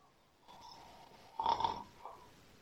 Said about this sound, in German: Du merkst, es ist nicht möglich, dass du normal atmest, sondern der Körper fängt automatisch jetzt zum Schnarchen an. Diese typischen Schnarchgeräusche, die passieren, sind, weil du den Kopf dann zu weit hinten hast.